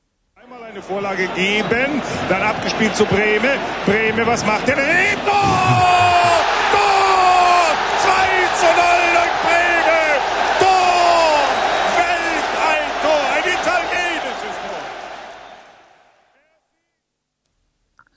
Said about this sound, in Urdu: ظاہر ہے یہاں بھی آپ نے سنتے ہی فوری طور پر اندازہ لگا لیا ہوگا کہ یہ منظر ایک کھیل کا ہے یعنی یہ ایک فٹ بال میچ کا منظر ہے جو کہ کسی اسٹیڈیم میں کھیلا جا رہا ہے